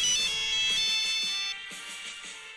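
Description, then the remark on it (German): A mobile phone ringtone plays a bright, tinkling electronic melody with steady rhythmic pulses, loud, dropping slightly in level partway through, played for a ringtone quiz. No one speaks. “Und ich habe mir ein paar Klingeltöne auf meinem Handy rausgesucht.”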